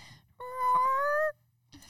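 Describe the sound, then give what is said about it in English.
A person imitates a baby tiger with a single drawn-out, nasal mewling cry lasting about a second, rising slightly in pitch. It's fairly loud, with quiet on either side. “I don't know that I can make an adult tiger sound, so I'm going to go with a baby tiger, okay?”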